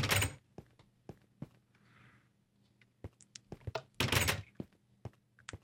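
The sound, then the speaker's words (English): A video game door, the only way to walk into a stadium, opens and shuts with heavy thunks at the start and again midway, separated by scattered clicks and a soft airy whoosh, with no voices. “Uh, but this door actually is the only way to walk into the stadium.”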